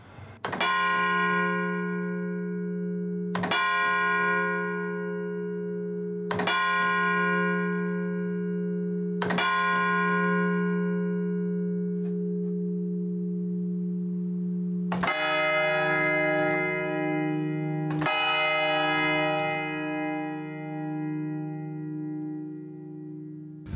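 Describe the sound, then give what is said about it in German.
An old church bell in a tower tolls slowly and loudly, about six resonant strikes a few seconds apart, each hum lingering into the next; the last two strikes ring at a different pitch. No voices. “Man hat versucht, so alte, so alte Glocken auch in, in, äh, in Stahlkonstruktionen aufzuhängen und sie dann zu läuten.”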